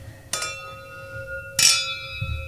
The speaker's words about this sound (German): darauf trinken wir erstmal ein. Stoßen Auf die 40 Jahre. Ja, Prost. Danke. Cheers.